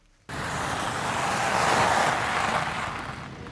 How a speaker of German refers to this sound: Die Wagen, Taxen oder eigenen Limousinen rollen über den knirschenden Kies.